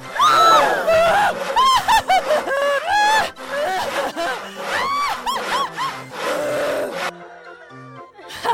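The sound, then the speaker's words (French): During a magic act, a sharpened saw cuts through a sealed wooden box with a woman lying inside, in quick, rhythmic back-and-forth strokes, each one rasping with a squeaky, honking tone, loud for about seven seconds before it stops. “Et cette scie est parfaitement affûtée. Je vais à présent couper Melvina en deux.”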